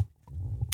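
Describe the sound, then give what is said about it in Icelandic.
A low, gurgling stomach rumble rolls on for under a second, quiet, with a faint squelchy burble near the end and no talking. “Já, það komi bara hérna garnagöl”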